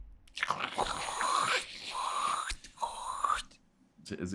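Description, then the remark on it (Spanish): A voice imitates the sound of a child crawling toward a bed with breathy, scratchy mouth noises: three long rasping swells in a row, then a fresh one starting at the end, with no words spoken. “Eh, para los de Spotify vamos a hacer el sonido de arrastrarse en este momento.”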